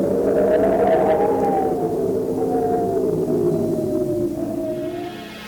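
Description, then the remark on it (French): Loud, steady wind on the sea ice howls with a wavering, siren-like moan over a rough roar, strengthening and battering a tent; the howl slowly shifts pitch and eases slightly near the end. “Le vent forcit encore. Rien ne l'arrête sur la banquise. Il s'acharne sur la tente.”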